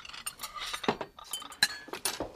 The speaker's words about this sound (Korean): 식당인데 이 주변이 좀 과하다 싶을 만큼 조용했달까요? 오. 어. 예. 수저 소리 말고는 진짜 조용했습니다.